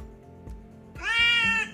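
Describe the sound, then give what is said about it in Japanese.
A single drawn-out cat meow, loud, rising out of a quiet background and holding steady for under a second before fading. “よくですね、あの、肩をね、肩のところにぐっとこう力入れながら伸ばしてますもんね。にゃーっつってね。”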